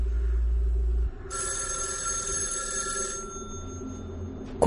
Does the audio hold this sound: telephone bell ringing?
yes